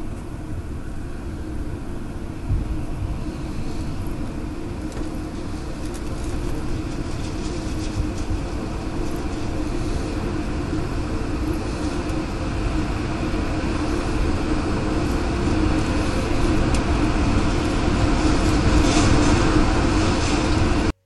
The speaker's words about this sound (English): And okay, so as someone who has watched a lot of tornado videos, oh god, a tornado uh, actually kind of sounds like a freight train when.